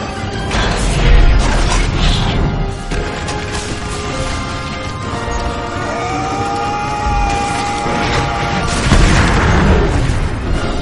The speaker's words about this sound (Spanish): Entre chispas, da vueltas en todas direcciones mientras cae en picado. Las explosiones sucesivas hacen que Kate esté a punto de perder el control del aparato.